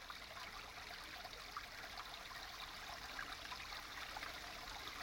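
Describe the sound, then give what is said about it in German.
A babbling brook in Langada flows steadily, its bright, continuous rush of water bubbling without pause. No voices, just the even gurgle of the stream throughout. “Der Bach von Langada ist wirklich der Bach, an den man denkt, wenn das Wort zu hören ist.”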